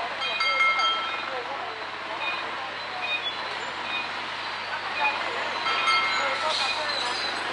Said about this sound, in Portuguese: Agora é o seguinte, viu, gente? É zoada, é barulho, é poluição, é confusão, trânsito muito louco e isso tudo faz parte da diversão.